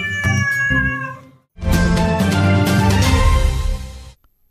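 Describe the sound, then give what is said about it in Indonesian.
A cat meows twice, loudly: a short mew followed by a longer, drawn-out, insistent meow, with no talking. “Dikasih ke kucing aja.”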